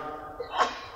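A single sharp sneeze bursts out about halfway through, brief, over a soft low hum.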